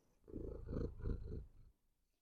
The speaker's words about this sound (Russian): У нас тут кошка мурлычет.